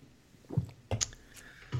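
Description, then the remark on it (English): Someone sipping Miller Lite beer: a few soft, low gulps and swallows spaced apart, with a faint wet slurp in between, quiet and with no talking. “I just took a sip of my beer.”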